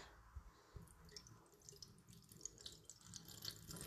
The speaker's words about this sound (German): Das ist jetzt einfach in meinem Wasserglas drin. Ne? Ich habe das heute Morgen nicht mehr geschafft wegzumachen. Aber jetzt mache ich es weg. Richtig eklig. Okay, erstmal ein bisschen Wasser abgießen.